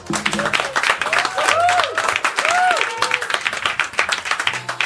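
A live public audience in the hall of a radio recording applauds steadily, dense clapping for the full duration, with a few scattered voices and whistle-like tones rising briefly through the crowd noise.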